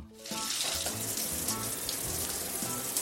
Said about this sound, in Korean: 주중에 열심히 일하고 주말엔 데이트 가려고 샤워를 하고 있었죠.